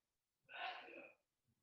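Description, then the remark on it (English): A single loud sneeze bursts out sharply and trails off after about a second, followed by a faint breath. “Bless you oh, you could hear that.”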